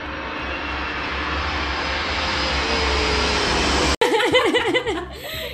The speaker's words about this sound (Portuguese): E daí hoje tinha uma professora faz... dando aula e lá vamos nós, avião. Tá, é um jato. É um jato?